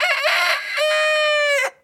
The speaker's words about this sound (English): I got to play my rooster one more time. I got to play my rooster. That's not the rooster. This is the rooster. This is the rooster.